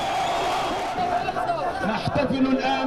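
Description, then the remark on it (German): Hamas supporters cheer in the streets of Gaza as a ceasefire agreement takes effect at 2 a.m., a dense, steady roar of many voices with individual shouts and calls rising out of it, growing louder and more excited toward the end. “Dann bricht Jubel bei den Anhängern der Hamas auf den Straßen in Gaza aus.”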